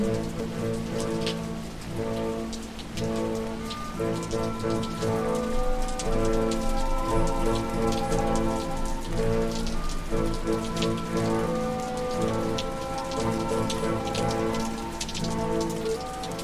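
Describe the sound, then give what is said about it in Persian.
Heavy rain pours steadily onto a rooftop, a dense, continuous patter of drops that stays loud and even throughout, with soft sustained musical tones underneath. “بارون میاد جر جر رو پشت بوم”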